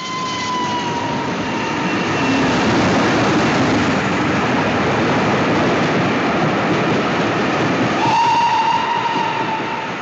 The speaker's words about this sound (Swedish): Och tåget är ju läskigt, alltså det bara rusar förbi.